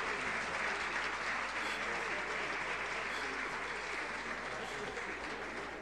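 Sustained applause from an audience of about 150 people, a dense, steady wash of clapping hands that stays loud and even for several seconds, with no voices standing out.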